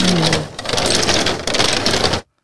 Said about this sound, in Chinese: 对对，这是窗户的声音哦。对，那就是很老的这种老的木窗的那个，在这个呃窗棂在摩擦的移动的声音，这样子。 其实我们每次录音，我们是在一间已经七十岁的老房子里面录音。